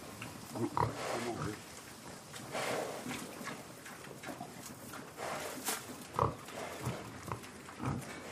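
pig grunting

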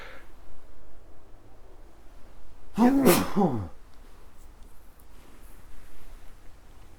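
sneeze

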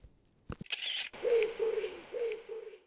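pigeon cooing

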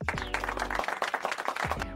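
applause sound effect

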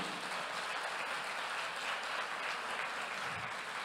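audience applause

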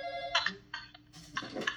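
telephone ringing

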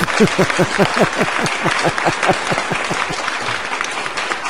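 applause

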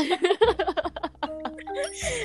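chicken clucking

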